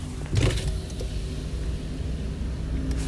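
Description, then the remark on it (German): A car's electric power window, fitted as standard in an electric car, hums steadily as it opens, a continuous motor whine with a brief louder bump near the start, over low cabin rumble. “Na, elektrische Fensterheber funktionieren serienmäßig.”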